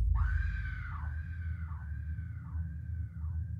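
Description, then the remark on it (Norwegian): A terrible, piercing, anguished scream rises and falls in about five drawn-out, wavering wails, loud, over a steady low rumble in the background. “hadde hørt et forferdelig gjennomtrengende og angstfylt skrik.”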